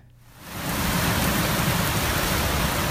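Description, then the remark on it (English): A heavy downpour swells in within the first half second and then roars steadily, a dense, loud wash of pounding rain coming down in waves of water rather than drops, on a running trail three miles from a ski lodge, with no voices. “I can't really call it rain because it didn't come down in drops, just waves of water.”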